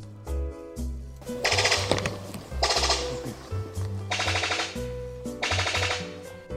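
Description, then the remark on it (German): Four bursts of rapid, rattling clicks, each about half a second long, harsh and machine-gun-like, the call of a sicklebill bird-of-paradise (genus Epimachus, bird-of-paradise family) that sounds almost like gunfire, separated by short pauses over a low background hum. “Das war der Epimachus. Oh, ich hoffe, ich habe es richtig ausgesprochen. Das ist äh, eine Gattung aus der Familie der Paradiesvögel.”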